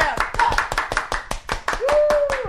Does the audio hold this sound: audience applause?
yes